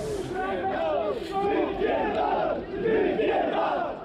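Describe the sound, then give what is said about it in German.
A rowdy crowd of hooligans storming a pride parade in Białystok shouts and yells at once, loud and continuous, overlapping cries rising and falling in a dense, agitated roar for about four seconds. “In Białystok stürmen Hooligans die Parade.”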